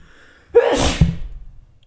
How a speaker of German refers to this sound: Oh, ich muss auch nochmal niesen.